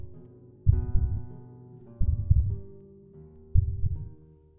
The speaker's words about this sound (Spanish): Su mirada se vuelve fría y su corazón late tan fuerte que mueve sus manos al ritmo del badum, badum, badum.